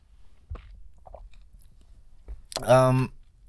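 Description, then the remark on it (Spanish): A few faint mouth clicks and lip sounds of someone sipping coffee, then a brief, louder voiced sigh of breath afterward. “pausa para trago de café.”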